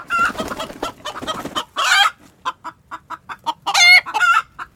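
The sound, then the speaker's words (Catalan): A hen clucks in a rapid, busy stream, then in a run of short, evenly spaced clucks, broken by two louder, harsher squawks. No voices. “La gallina va avançar lentament cap a la vora del foc, cap a la vora del foc, lentament.”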